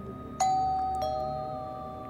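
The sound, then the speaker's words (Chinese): A doorbell rings with a two-note ding-dong: a bright higher chime, then a slightly lower one about half a second later, both ringing out and slowly fading. No one speaks. “他站上台子，正要把脖子套进绳索时，门铃响。”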